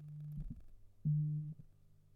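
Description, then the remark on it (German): A mobile phone vibrates with two low, droning buzzes, a softer one followed by a louder one after a short pause, with no talking. “Hier, wollt ihr mein Handy brumm hören?”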